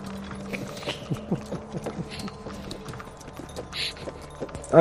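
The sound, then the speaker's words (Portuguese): Hooves clip-clop at a steady walking pace from a horse-drawn carriage travelling along a road, with a low rolling hum beneath and a brief tonal sound at the very end. “a carruagem vai seguindo até que vocês tomam a estrada”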